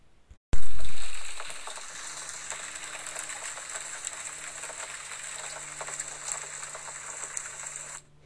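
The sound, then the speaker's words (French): Steady rain starts abruptly and falls for several seconds, a dense hiss of fine patter and scattered drops at a fairly constant loudness, heard on its own with no voices. “Tu entends sa musique Plic-ploc, plic-ploc, split-splat.”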